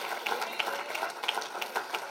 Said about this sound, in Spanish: Dale un aplauso.